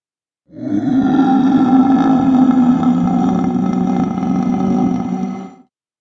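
A loud, sustained moaning voice from behind a door groans steadily for about five seconds, low and droning with a rough, eerie quality, then cuts off abruptly.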